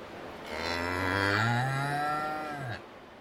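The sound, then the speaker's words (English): A single long, loud bellow from a pig in the cattle sheds at a county fair, lasting about two seconds with a slight rise and fall in pitch before cutting off; no voices. “On the night that Donald Trump Jr.'s bombshell emails were released, the pigs in the cattle sheds were more agitated than the people.”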